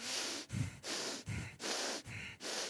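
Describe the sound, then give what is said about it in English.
Heavy, forceful snorting breaths through the nose, about three in-and-out cycles in a steady rhythm, loud, made by a person imitating an angry bull in a corner. “There's another word, uh, this, there's an Old Testament word and a New Testament word, and they both relate to breathing heavy through the nose.”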